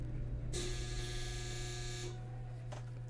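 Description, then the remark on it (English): A clothes dryer hums steadily while a harsh, bright buzz blares for about a second and a half, then cuts off and leaves the low drone going. Nobody speaks. “If you heard that, that was the dryer.”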